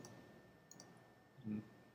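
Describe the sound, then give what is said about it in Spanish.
A couple of quick, faint computer mouse right-clicks, selecting a 3D object, in close succession, followed by a soft low thump, against a quiet hum with no one speaking. “aquí tenemos nuestro objeto en 3D igual vamos a seleccionar el objeto haciendo clic secundarios y vamos a cambiarlo de formato”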